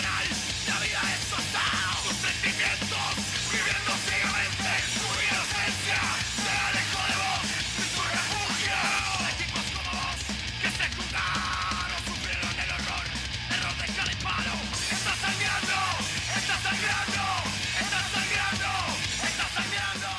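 A rock song by a Uruguayan band plays steadily throughout, dense and loud, with driving full-band instrumentation and what sounds like shouted or strained vocals over a constant wall of guitars and drums.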